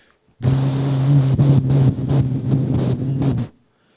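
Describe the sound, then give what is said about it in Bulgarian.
A voice imitates the deep, droning bass tone of a super powerful speaker turned to maximum on bass, a loud, steady low buzz held for about three seconds with slight wavering, alone. “единственото, с което мога да го сравня е ако застанеш пред супер мощна тон колона, която е на, на максимум, на бас, на баси и просто звучи една търба, която прави...”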